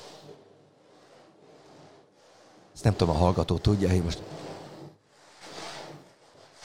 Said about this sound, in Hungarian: Ez lehet, hogy szélvihar, vagy tenger. Vagy csak simán az asztalt kaparod. És kaparom az asztalt az Aha. összes körmeimmel.